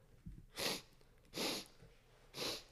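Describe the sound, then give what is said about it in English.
Three hard, forceful sniffs through the nose, evenly spaced about a second apart, each a sharp hissy inhale with brief quiet between, as a person sniffs for a smell of smoke. “like that, like breathing really, inhaling really hard in my in my nose.”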